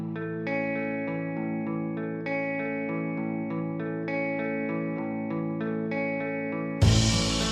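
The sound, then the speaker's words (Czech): A retro-sounding instrumental track made for a video game's period soundtrack and heard from radios in its levels plays steadily, with layered synth chords and a bass line shifting every second or so, no voices, cut off by an abrupt bright noisy burst at the end. “Za tím účelem vzniklo i několik opravdu retro skladeb a jednu z nich teď pustím.”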